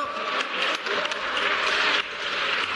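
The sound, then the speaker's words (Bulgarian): Continuous applause played on air as an ovation during a broadcast, a dense wash of many hands clapping at once, steady and fairly loud from start to finish with no voices over it. “Ами ето, за овации сега да аплодираме тук ефира. И аз да попляска малко.”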